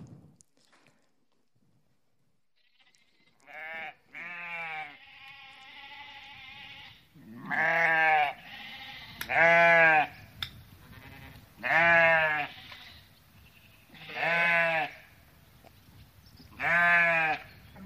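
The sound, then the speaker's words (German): Sheep bleat loudly, about seven wavering calls spaced a couple of seconds apart, with no talking and only a faint background hum between them. “Schafe sind schutzlos, wehrlos, orientierungslos.”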